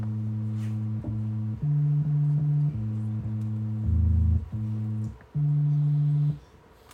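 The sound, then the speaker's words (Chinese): An FM synthesizer plays a run of steady, low electronic tones, about eight notes with short breaks, hopping between pitches. The tones are smooth and hum-like with few overtones, and no one speaks. “啊，对，后续的，到到八八七八八年之后，它开始可以不只是用正弦波。”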